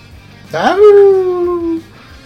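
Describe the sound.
A single human voice mimics a wolf howl while introducing a person nicknamed the big bad wolf, sliding up sharply then holding a long, steady, slightly falling tone for about a second before cutting off. Fairly loud.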